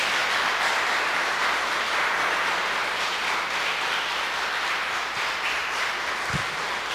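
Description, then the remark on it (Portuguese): An audience applauds God during a church sermon in a dense, steady wash of clapping that stays loud and even for about seven seconds, with no voices rising above it. “Você pode aplaudir a Ele em nome de Jesus?”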